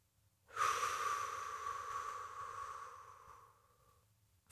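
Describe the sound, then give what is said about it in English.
One long, deep breath, a steady airy rush lasting a few seconds before fading out, with no talking, as a person breathes into the belly first and then up into the lungs. “Do that as many times as you need to, and as you are breathing, pull that breath into your belly first and then roll it up to your lungs.”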